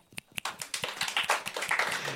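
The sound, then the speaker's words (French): A couple of sharp, separate claps ring out, then a whole audience joins in with dense, steady applause, a 'Dragon Ball activist clap', that stays fairly loud to the end. No voices are heard. “Attendez, on va faire le clap de militant Dragon Ball, clap.”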